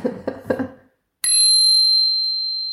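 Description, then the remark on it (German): A single loud strike of a bicycle bell rings out clearly after a brief rustle of other sound, its bright metallic tone sustaining and slowly fading for well over a second. “Ja, die klingt wirklich super. Oder? Die klingt also, so schön nach.”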